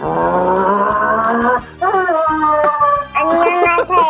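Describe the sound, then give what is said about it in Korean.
A voice imitates a racing car in a sound-imitation contest, with sustained, buzzing engine-like drones that rise in pitch in repeated surges, briefly breaking between bursts, loud, with no real vehicle present. “자, 경주차 소리 들어보겠습니다.”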